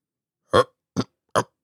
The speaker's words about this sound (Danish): Slagtermesteren besinder sig efterhånden, rømmer sig og tager ordet.